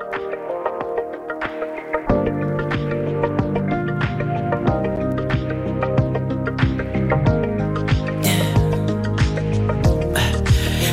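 A pop song intro plays on radio station Vibe5 with no singing, starting light before a deep bass and steady beat kick in, building with a bright shimmering cymbal wash toward the end.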